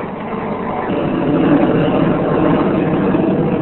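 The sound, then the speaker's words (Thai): A steady, broad engine roar of an airplane passing overhead, swelling slightly louder over a few seconds and holding without a break; no voices are heard. “เรือบินมาเดี๋ยวก่อน”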